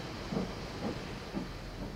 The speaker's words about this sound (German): Dann war der Zug verschwunden.